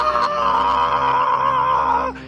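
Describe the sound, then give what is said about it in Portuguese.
A single loud, sustained scream from one voice, held steady for about two seconds before cutting off abruptly, performed as an imitation of a terrified horror-film shriek. “Moleque, eu dei um grito, daquele grito que a pessoa no filme de terror paralisa durante 5 segundos.”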